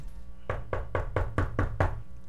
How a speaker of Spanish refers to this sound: FBI tocan a la puerta.